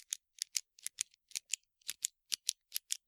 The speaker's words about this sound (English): An example of this would be let's say you are studying in the library and the person next to you is clicking a pen like this.